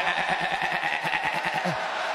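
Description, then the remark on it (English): A person imitates a goat's bleat, a loud, continuous, wavering nasal cry that pulses rapidly for about two seconds, over a faint crowd murmur. “he's trying for a goat sound”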